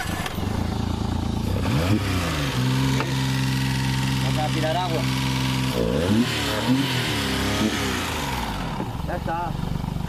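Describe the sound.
A small boat motor is cranked and revved again and again, its pitch surging and dropping between bursts and a steady mid-clip drone, close and loud, with faint voices underneath.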